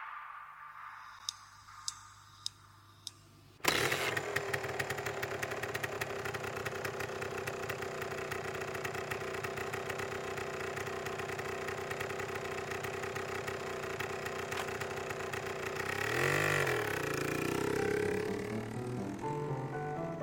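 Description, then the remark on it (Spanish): A motorcycle engine starts after a few clicks and settles into a steady idle with a low rumbling throb, then revs up slightly near the end. “a veces alguien me llevaba en moto.”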